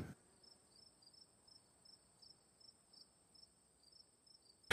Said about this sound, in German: Hier bitte Grillenzirpen einfügen.